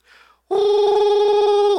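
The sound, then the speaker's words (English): A phone's ringing tone for a call placed through Siri starts abruptly after a brief soft rustle and holds steady and loud, a bright buzzing tone with a fast pulsing flutter running to the end. “Hey, Siri, call such and such.”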